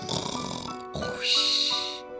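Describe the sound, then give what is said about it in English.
A voice imitates snoring with a short rough snort, then a drawn-out, breathy wheeze with a hissy whistle on top, about two seconds long. “oh my god, I can't snore.”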